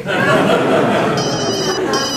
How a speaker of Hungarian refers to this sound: Ha jól számolom, itt nyolc telefon csöng egyszerre. A reggel óta eltelt néhány óra, most délben újfent meglátogattuk a pénzügyminisztert hivatalában. Hallja! Hallja! Hallja! Hogy itt mi van?